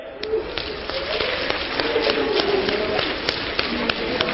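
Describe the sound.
Many people tap two fingers of their left hands lightly on their palms in a dense, steady patter that sounds like gentle rain, continuous, with faint murmuring voices underneath.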